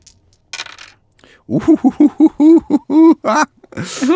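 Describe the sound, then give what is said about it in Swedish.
Four six-sided dice rolled for fire damage in a tabletop game clatter and rattle across a hard surface in short bursts at the start and end, with a voice speaking briefly in between; they land three sixes and a five. “Och även denna en grad tre såklart då. Så 4 D6.”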